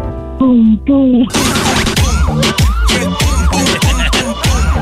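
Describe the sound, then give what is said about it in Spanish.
A child imitates the sound of their mother's heartbeat with their voice: two short hummed notes, then a steady run of about eight loud, breathy vocal thumps in an even, quick rhythm. “¿Tú sabes el ruido del corazón de tu mami?”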